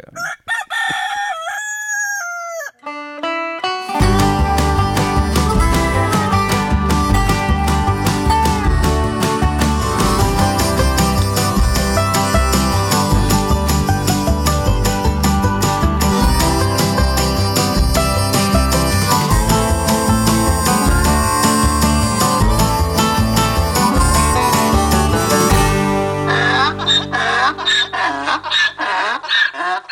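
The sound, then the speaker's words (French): A rooster crows for a few seconds, then a lively, driving banjo tune kicks in loud and steady with strong rhythmic backing, before thinning out into a brief ringing tail at the end. “Il avec le banjo, là. Ouais, pas ça, cette tune là”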